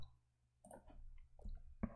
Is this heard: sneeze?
no